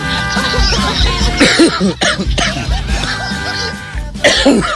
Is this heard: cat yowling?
no